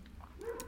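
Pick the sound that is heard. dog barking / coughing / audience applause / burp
dog barking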